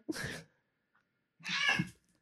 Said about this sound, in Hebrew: חתולה תקפת כלב, זמן מעולה לזה, זה לא כאילו אנחנו אה, מקליטות.